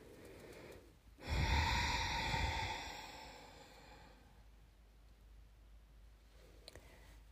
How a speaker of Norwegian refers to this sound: En annen metode med en gang det kommer en tanke du ikke ønsker å ha, ta et skikkelig dypt innpust og et ordentlig utpust. Du kan puste med lyd om du ønsker.